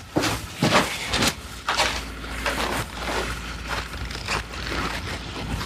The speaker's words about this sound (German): Hört man auch eine Baustelle hier nebenan. Da wird ja tierisch viel gebaut in Longyearbyen.